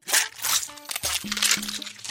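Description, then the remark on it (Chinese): A goose egg's shell cracks open as it hatches, with a cluster of dry, crunchy crackles over the first second, followed by a low, steady humming tone that holds to the end. “蛋壳裂开了，有一只小动物从蛋壳里伸出头来，”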